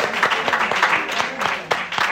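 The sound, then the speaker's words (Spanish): An audience applauds after a Hebrew blessing, a dense wash of many hands clapping at once with a few sharper claps standing out, steady throughout. “Un aplauso.”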